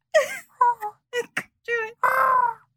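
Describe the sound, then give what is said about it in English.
A person imitates a pigeon's cooing with a quick run of short, warbling vocal hoots that ends in one longer, drawn-out coo, fairly loud with no other sounds. “That's what you sounded like a pigeon.”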